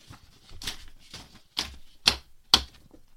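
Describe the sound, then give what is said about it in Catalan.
A sheet of paper with notes about Disney films is handled, giving several short, crisp rustling crackles at uneven intervals, the last few sharper and louder, with no one speaking. “si vols jo, jo t'ensenyaré, he fet aquí un paper, val? m'he agafat i m'ho he ordenat tot.”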